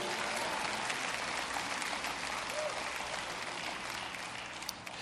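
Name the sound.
audience applauding and cheering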